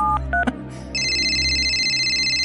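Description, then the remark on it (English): A few quick telephone keypad beeps in rapid succession as Nick Rhodes's phone number is dialed, followed by a steady, shrill electronic tone that holds to the end over a low background hum. “no, that is Nick Rhodes's phone number.”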